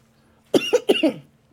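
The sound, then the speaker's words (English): A quick fit of sputtering coughs after swallowing a vermouth cocktail the wrong way, about four harsh bursts packed into half a second, fairly loud, with silence before and after and no talking. “I swallowed wrong.”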